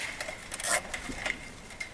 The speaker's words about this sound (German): Den Kabelbinder festziehen.